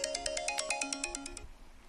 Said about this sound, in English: Oh god, I gotta get the phone.